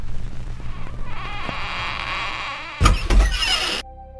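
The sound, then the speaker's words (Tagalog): A door creaks open with a drawn-out, squeaky hinge as a child opens it to see who is knocking, then a louder rattling clatter as it swings fully, fairly loud, ending abruptly with no voices. “Buksan mo na ang pinto, anak para malaman natin kung sino ang kumakatok.”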